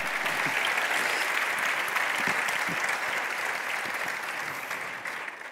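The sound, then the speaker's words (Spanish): An audience applauds a guest speaker steadily, a dense wash of many hands clapping at an even, loud level throughout, thinning slightly at the very end. No one speaks over it. “os pido un fuertísimo aplauso, por favor.”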